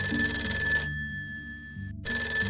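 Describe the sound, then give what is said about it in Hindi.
A telephone rings at night in two bright, steady bursts separated by a short pause, a call from the narrator's father, with a soft low background drone running underneath throughout. “फिर से फोन बजता है मेरी फोन उठाने की अब दोबारा हिम्मत नहीं थी धीरे धीरे अपना हाथ बढ़ाया और फोन की तक ले गई देखा तो पापा का फोन था”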